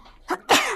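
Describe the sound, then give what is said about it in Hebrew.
A single sneeze: a quick sharp intake, then an explosive, breathy burst that trails off over a fraction of a second. No one speaks. “לבריאות, תודה.”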